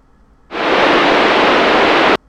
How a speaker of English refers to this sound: Then she was gone, lost in the sea of static. I waited for several tense seconds, hoping she would come back on the line.